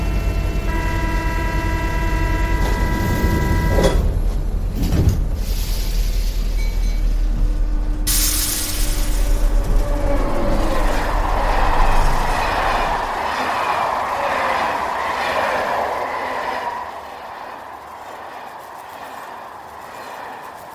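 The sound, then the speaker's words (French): A steady tonal whine gives way to a heavy thud as train doors shut, then the train pulls away, its rumbling clatter swelling before gradually fading toward the end. “Prenez garde à la fermeture automatique des portes. Attention au départ.”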